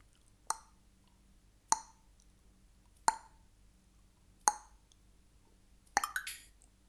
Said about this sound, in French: Un soir donc, imaginez le vieux couple dans la cuisine, occupé à écosser des haricots, le silence étant juste troublé par le bruit des haricots qu'il lançait dans la bassine émaillée.